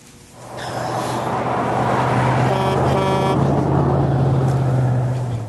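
A large truck rumbles past with a steady low engine drone, and a loud horn honks for about a second midway through. No one speaks.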